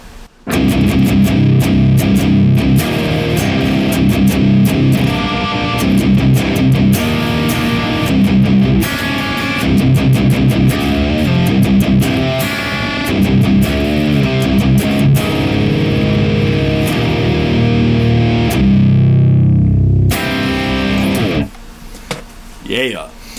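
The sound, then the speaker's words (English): Heavily distorted electric guitar riffs through a Neural DSP amp simulator, a Mic Buzz Nectar Giant on the left and a Brat Uber 75 EL84S on the right, loud, with chugging palm-muted rhythms and sharp attacks for about twenty seconds before cutting out to a brief quieter tail. “This is what it sounds like with just the Neural DSP running the Mic Buzz Nectar Giant on the left and the Brat Uber 75 EL84S on the right.”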